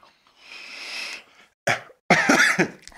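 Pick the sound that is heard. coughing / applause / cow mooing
coughing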